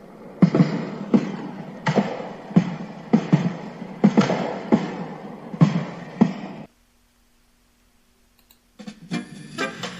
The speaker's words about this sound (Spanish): pero bueno, sigamos con los cohetes del Día de la Virgen.